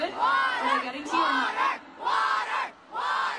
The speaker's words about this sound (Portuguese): Durante o show de ontem, a artista chegou a jogar uma garrafa de água para um fã e parou a apresentação diante do apelo da plateia que pediu água em inglês.